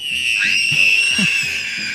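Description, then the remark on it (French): Children scream loudly and continuously in shrill, high-pitched voices, the sustained cries filling the whole moment over a steady, rhythmic low pulsing in the background. “Alors les enfants se taisent un instant avant de crier plus fort.”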